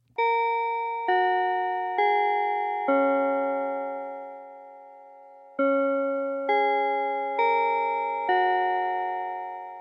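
A bell chime plays a clear melodic sequence of struck tones, four notes, a pause, then four more, each ringing with bright harmonics and decaying slowly, with no talking, sounding as the opening chime before the Chinese tech show Keji Zaozixi (Tech Morning Study) begins.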